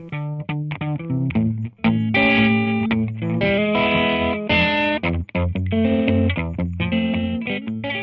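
Loud distorted electric guitar music plays throughout, choppy rhythmic chords giving way to long sustained, ringing notes, with no voices.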